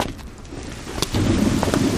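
A sudden sharp thunder crack splits the air midway, followed by a heavy, sustained low rumble that rolls on loudly over steady background noise.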